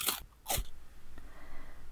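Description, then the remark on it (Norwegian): Two sharp, crisp crunches of someone biting into and chewing a crisp carrot, followed by a quiet pause with faint background hiss. “Og når vi hører at noen tygger på en sprø gulrot, da forstår vi at hørselen også betyr noe for smaken.”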